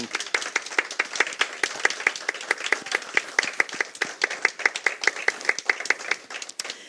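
Audience applause for musicians: steady, dense clapping from many hands, a sharp crackling patter that holds at an even level throughout with no talking over it.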